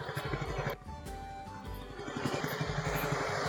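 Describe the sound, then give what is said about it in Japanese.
Steady roar of main-road traffic, with engines and passing vehicles rumbling continuously; a motorcycle-like engine surges briefly, and the noise swells louder toward the end. No one speaks. “あ、ちょっと大通り出ちゃうな。うるさいかな。”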